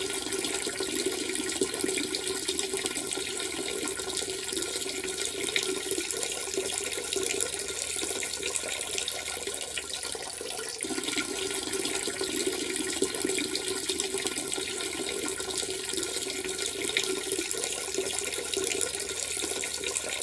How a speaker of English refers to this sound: Oh my, I guess I shouldn't have chugged that beer before. I guess I have to pee now.